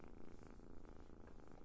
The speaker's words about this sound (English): That's the sound of the kitten purring and Lola scratching her furry belly.